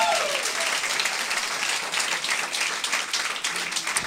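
An audience applauds steadily, a dense, continuous wash of many hands clapping at fairly loud level for about four seconds, with a brief faint voice at the very start.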